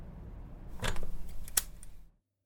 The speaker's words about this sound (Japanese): カチャリと冷たい音が鳴る。見れば、エコーくんの指がガラス戸の錠にかかっていて、当然のごとく錠の表示は開くから閉めるに変わっていて。